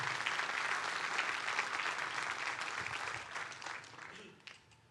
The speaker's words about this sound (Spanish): Le puede dar un fuerte aplauso a Dios por eso.